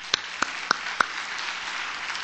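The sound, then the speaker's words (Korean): Audience applause at a church vision worship service, welcoming three people from last year's discipleship training onto the stage; a steady wash of many hands clapping, with a few louder, sharp individual claps standing out in the first second before the clapping continues evenly. “나오, 나오실 때 이렇게 조금 넓으시니까 박수로 환영하겠습니다.”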